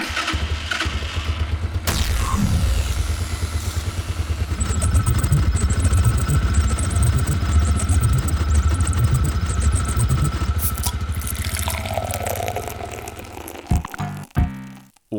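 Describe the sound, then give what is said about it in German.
The small engine of the Mobbit is yanked into life with a pull cord, then runs loud and uneven, sputtering and clattering with a rough, lumpy idle before cutting out near the end. “Da ziehe ich mal an der Schnur hier und zack.”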